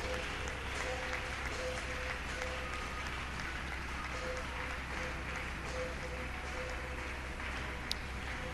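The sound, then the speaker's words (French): A church audience, asked to acclaim the Lord loudly, claps steadily and loudly for several seconds, a dense continuous wash of applause with faint cheering voices mixed in. “est-ce qu'on peut acclamer très fort le Seigneur?”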